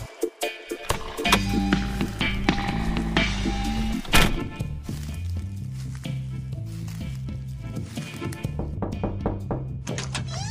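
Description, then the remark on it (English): A door-knock sound effect used as a guest drop: a series of hollow thumping knocks repeating irregularly over a steady, low, humming musical backing, with no voices. “All right, and it's us again at the door. I like this new guest drop.”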